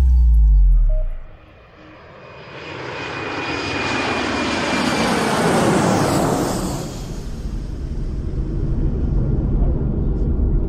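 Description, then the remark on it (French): A Boeing 737 jet airliner flies at full speed at 35,000 feet in a clear blue sky, its engines roaring loudly and steadily, a broad whooshing rumble with a faint high whine that swells after a brief dip and then holds for several seconds. “À 35 000 pieds d'altitude, un Boeing 737 file à pleine allure dans un ciel d'un bleu éclatant.”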